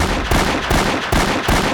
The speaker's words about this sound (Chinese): 最后的五声枪响。五只斑点狗应声倒地，猴子警长打光了所有的子弹